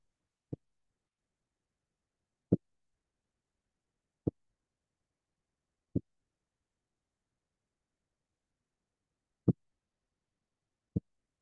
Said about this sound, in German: Da draußen geht schon voll die Knallerei ab. Pünktlich.